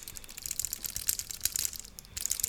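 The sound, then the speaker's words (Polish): A quick, irregular clatter of small loose parts rattling inside shaken bone-conduction headphones that fell off a table, fairly quiet, with a brief pause before the rattling resumes. “Wszystko grzechocze. Te głośniczki, które są w tych słuchawkach, to po prostu one były, mam wrażenie, klejone, y, żeby odpowiednio były ułożone względem naszych kości policzkowych.”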